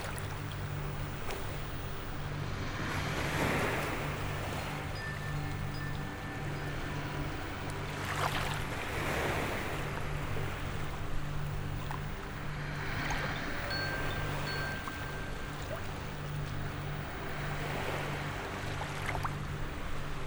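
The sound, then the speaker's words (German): Ocean waves wash in slow, regular surges roughly every four to five seconds over a constant low hum, with no voices, a calm and steady rhythm. “Ihre Körper geben sich ganz inne in das Gefühl vom stetigen Rauschen, langsam, ruhig und friedlich. Und ihre Schnuff geht im Rhythmus vom Meer.”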